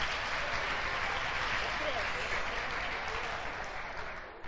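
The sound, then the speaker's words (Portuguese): An audience claps steadily for a group, a dense, continuous patter of many hands with some voices mixed in, holding loud throughout before thinning slightly at the very end. “Palmas, leva, leva pro grupo, leva pro grupo.”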